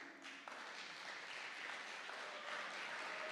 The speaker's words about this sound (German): Genau, gebt ihm einen Applaus auf dem Weg nach vorne.